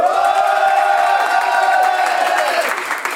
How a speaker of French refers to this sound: on peut entendre le public, faites du bruit le public. Euh, faites du bruit le public, ouais.